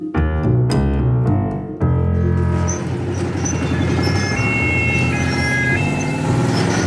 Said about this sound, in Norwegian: Ved roklubben hadde en kranbil fra Falken rygga ned på den steinsatte kaikanten. En stram vaier forsvant i dypet. Vinsjmotoren hylte anstrengt, og vaieren dirra.